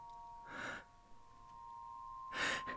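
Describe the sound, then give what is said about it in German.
A person lying alongside someone at night in the dark, breathing: two slow breaths, each a soft airy rush, separated by a pause of near silence, with a faint steady electrical hum beneath them. No one speaks. “Ich höre sogar, wie du atmest.”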